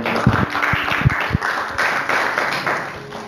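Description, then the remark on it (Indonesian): An audience clapping their hands together as applause for God, a loud, dense wash of applause with a few sharper individual claps standing out near the start, continuing steadily for a few seconds. “amin berikan tepuk tangan buat Tuhan kita”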